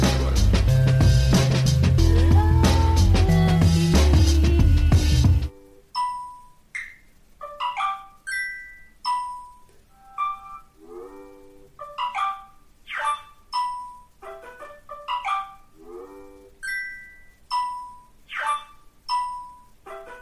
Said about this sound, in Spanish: Comenzamos el episodio con esa ensalada de notificaciones que ya resulta habitual y que a veces pues puede resultar exasperante, tanto por masiva como por intrusiva.